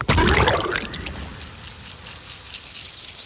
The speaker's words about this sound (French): Pourtant, en s'approchant de plus près, un grésillement continu se fait entendre. Nous plongeons notre hydrophone dans l'eau et un autre monde sonore apparaît.